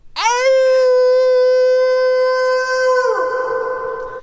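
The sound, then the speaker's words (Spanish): A person imitates a wolf howl in one long, loud, sustained note that rises at the start, holds steady for about three seconds, then breaks and trails off with an added echo effect. “Así dice el, lobo”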